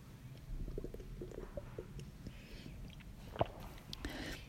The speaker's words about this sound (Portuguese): deixa eu beber água.